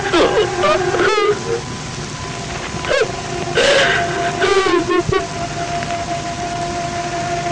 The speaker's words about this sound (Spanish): Era su llanto. Era su llanto desconsolado Realmente había escuchado aquello.